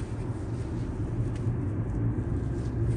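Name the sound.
car driving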